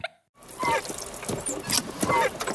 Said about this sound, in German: Ich weiß zwar nicht, wer Sie sind, aber Sie können hier nicht einfach Unkrautvernichter versprühen. Aber nein, das ist kein Unkrautvernichter. Das ist reines Meerwasser, um mich ausreichend feucht zu halten.